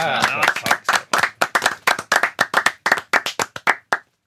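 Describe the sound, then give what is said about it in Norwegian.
Audience clapping in a steady, even rhythm, around seventeen sharp, loud claps over four seconds, with a brief voice or cheer mixed in at the very start before the clapping stops abruptly, on the NRK P13 radio show Satiriks redaksjonsmøte. “Applaus, da.”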